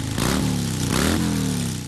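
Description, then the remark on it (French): An enthusiast's motorcycle engine is restarted by a mechanic and roars, revving up twice in quick succession with rising pitch, a loud continuous rumble throughout with no speech. “Moi, je redémarre la machine d'un passionné.”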